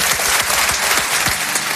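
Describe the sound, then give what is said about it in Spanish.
A live audience at a joint broadcast of three Spanish radio stations claps steadily for the stations' listeners, a dense, sustained wash of many hands applauding at full volume with no voices over it. “Me gustaría que el público aquí asistente enviara un aplauso a los oyentes de esas tres emisoras que suban 8 millones de oyentes.”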